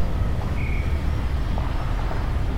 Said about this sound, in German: Windböen tragen Baggerlärm heran von einem oben abgeflachten, kahlen, rotbraunen Berg, der sich in zwei, drei Kilometern Entfernung aus dem Dschungel erhebt, unterteilt in Stufen.